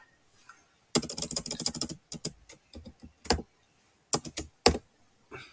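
Fast, clicky keystrokes on a computer keyboard as someone types text such as "digital" into a design editor where the font adapts, coming in quick bursts, a dense flurry followed by scattered taps with short pauses between, fairly crisp with no voices.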